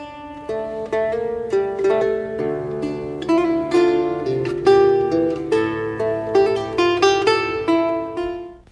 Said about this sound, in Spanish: Bueno, el laúd es un instrumento de cuerda renacentista y es muy parecido a lo que fuera una guitarra en ese tiempo y suena más o menos así.